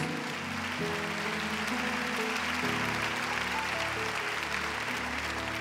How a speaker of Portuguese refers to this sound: E se você crê, aplauda forte o Senhor, porque Ele é Deus.